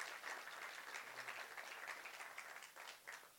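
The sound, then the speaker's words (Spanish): An audience applauds loudly for God for the lives of their pastors, a dense, steady wash of many hands clapping together with no clear individual beats, sustained throughout with a slight dip near the end. “Entonces, vamos a darle un fuerte aplauso nuevo a Dios por la vida de nuestros pastores, bien fuerte, bien, bien, bien, bien fuerte.”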